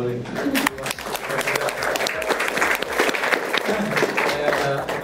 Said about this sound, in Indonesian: Luar biasa nih kita kasih tepuk tangan